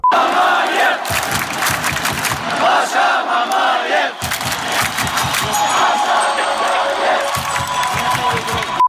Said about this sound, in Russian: Жена Павла Мамаева показала реакцию болельщиков Ростова на переход ее мужа в команду. Видео появилось в ее инстаграме. На кадрах слышно, как трибуны с болельщиками Ростова приветствуют Павла Мамаева и скандируют его имя и фамилию.